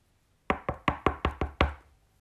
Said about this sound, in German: nächsten Morgen klopfte es an der Tür von Asu